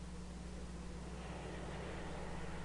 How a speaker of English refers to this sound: Oh, it's a freeway.